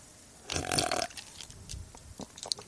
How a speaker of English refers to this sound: Let me have a little sip of that one. Let's see.